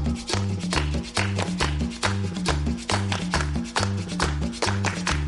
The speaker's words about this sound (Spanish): Bien, bien, bien, bien, muchachos, con la palmas al ritmo, con la palma al ritmo.